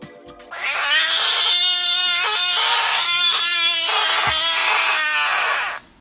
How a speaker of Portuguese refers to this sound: Esse sapo tem muito aqui no Brasil, ali daquele local, que era um lugar onde tinha mais mato, tudo isso, né? Então, eu acho que existia muito sapo desse, que realmente é muito igual a uma criança.